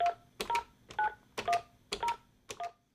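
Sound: telephone keypad dialing tones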